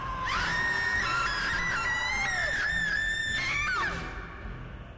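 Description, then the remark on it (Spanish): A long, shrill screech of car tires braking outside holds steady for nearly four seconds, loud and piercing, with a wavering pitch before it abruptly fades into quiet background noise, as creatures pass by. “Se escuchan afuera sonidos de autos que frenan cuando van pasando las criaturas, se escuchan un cocinazo, algún grito por ahí lejano.”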